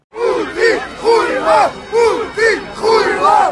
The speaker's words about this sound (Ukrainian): Наші грузинські поговоримо сьогодні на тлі протестів в Тбілісі, де другий день лунають наші фірмові кричалки.